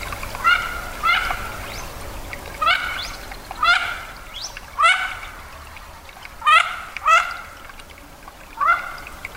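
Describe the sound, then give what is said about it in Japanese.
Mandarin duck calls, a series of about eight short, nasal, rising whistles, some in quick pairs, repeated at irregular intervals over a low, steady background rumble. “おしどりはカモの仲間ですカラスより大きく見えますオスはとてもカラフルな配色をしていますそれに対してメスはとても地味な色です”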